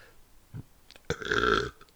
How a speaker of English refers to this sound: uh, burp.